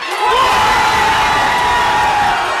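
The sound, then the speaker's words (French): French football supporters roar in celebration of France's second goal against Morocco, scored by Randall Colomwani in the 79th minute, a loud, dense wall of cheering and shouting that swells quickly and holds steady throughout, with higher whoops rising above the din. “Pendant que les Français exultent, Hassen, dernier supporter marocain, fait bonne figure.”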